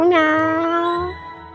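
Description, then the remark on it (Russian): A single long, drawn-out cat meow, loud, rising briefly and then holding a steady tone for about a second before it cuts off into quiet. “Мурмяу, такой голос тебе подойдет? По-моему, он громкий.”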